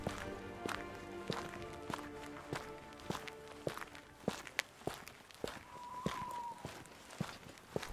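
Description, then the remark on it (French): Steady footsteps walk up the rue des Portes Mordelaises alongside the old moats, each step a sharp distinct click in an even rhythm, with a faint hum of background noise and a brief higher tone partway through. No one speaks. “Nous remontons maintenant la rue des Portes Mordelaises en longeant les anciennes douves.”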